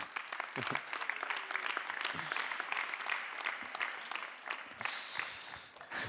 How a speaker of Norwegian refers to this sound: må dere gi en skikkelig god klapp.